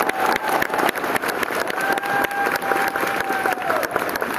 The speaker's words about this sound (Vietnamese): tôi xin nhờ các anh chị một tràng pháo tay à, giờ cho cho bố mẹ của con to lên cho tới thiên đường luôn ba mẹ cũng mới nghe được